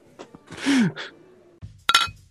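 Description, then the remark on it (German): A single bright clink of glasses touching in a toast, with a short ringing tone, preceded by a breathy exhale and soft rustling. “Apropos enttäuschte Weihnachten. Prost, ja.”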